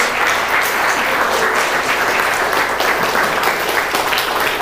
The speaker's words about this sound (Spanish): Muy bien, vamos a ponernos en pie un momento, tomamos aire, vamos a estirarnos, le damos un aplauso gigante a Dios, despertamos.